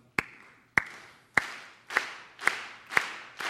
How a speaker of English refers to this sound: Hi, wow, look at all these people. Um, hey, can we get some rhythmic clapping like.